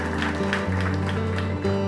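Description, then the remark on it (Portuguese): An audience claps steadily for Jesus in a dense, continuous wash of applause, while sustained low keyboard chords hum underneath and shift pitch a couple of times. “Eu queria que você desse um, um forte aplauso para Jesus agora porque Ele é digno.”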